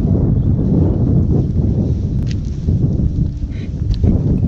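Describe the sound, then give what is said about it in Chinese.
Strong wind and blowing snow on a hillside in the Icelandic wilderness roar steadily for the whole stretch, a dense low rumble with gusty surges and faint crunching textures, loud and unbroken, with no voices or human-made sounds. “看完全没有任何人的声音，甚至 人为的声音， 人为的声音，你就听到风声、雪声。”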